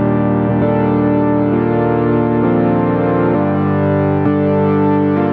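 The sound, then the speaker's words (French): A Korg Minilogue analog synthesizer pluck patch plays a slow run of loud, buzzy, harmonic-rich notes, a new pitch struck roughly every second, each ringing on until the next, with no voices. “ouais, ça fait vraiment les vieux synthés analogues quoi.”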